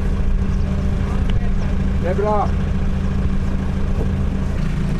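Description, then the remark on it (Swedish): A motorboat engine drones steadily and loudly throughout, a low continuous rumble as the boat comes in to moor at the island of Gloe in Finland, with a brief spoken phrase from a person partway through. “Nu kommer vi in till Gloe och nu ska jag rusa fram och förtöja.”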